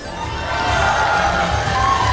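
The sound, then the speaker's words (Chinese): A studio audience of a hundred people on the TV show 家庭公开课 (Family Open Class) bursts into loud, steady applause mixed with cheering as they are welcomed, a dense wash of clapping and voices sustained for about two seconds with no speech over it. “欢迎现场一百位热情的观众，欢迎你们！”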